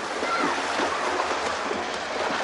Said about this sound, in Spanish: Niños desnudos chapotean en el agua.